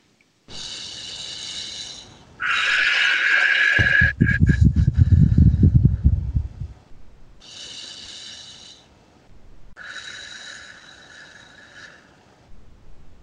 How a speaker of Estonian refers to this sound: nii et hinga sisse läbi nina ja välja hinga torutatud huultega no,, nagu hingaksid läbi kõrre ja hinga mõned korrad